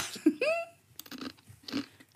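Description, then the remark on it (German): A short rising vocal sound, then close, quiet crunching as crunchy food is bitten and chewed, with several brittle bursts in an uneven rhythm. “Knusper. Knusper.”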